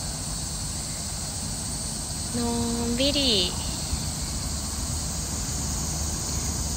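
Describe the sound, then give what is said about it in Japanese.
A steady, unbroken cicada drone fills the air alongside soft natural outdoor wind noise at a highway service area, constant from start to finish, with a person briefly speaking a word partway through. “今帰りでサービスエリアによってぼーっとしてますセミのね鳴き声とかねこの自然の風と音といやー最高ですね”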